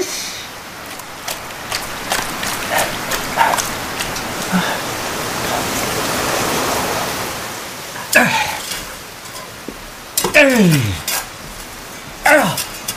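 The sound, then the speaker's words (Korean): Heavy rain pours down in a steady, dense hiss that fills the whole clip, with sharp splashing bursts and a few brief vocal sounds breaking through toward the end. “하늘에 구멍이 났네. 아왜 어, 이렇게 쏟아붓고 다냐”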